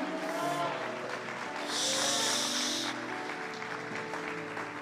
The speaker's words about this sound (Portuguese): Se você crer, dê um brado ao Senhor e aplaudam aqui.